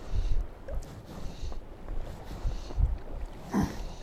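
Gusty wind buffets the microphone outdoors while fishing from a point, producing uneven low rumbles and thumps that rise and fall throughout, with a faint watery background and no one speaking.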